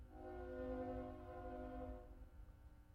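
A train horn blows a long, loud chord for about two seconds over a steady low rumble of rolling wheels, then the horn fades out, leaving only the rumble.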